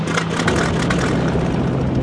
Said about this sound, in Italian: Il mio aeroplano ebbe un problema nel deserto del Sahara. Nel motore qualcosa non funzionava più.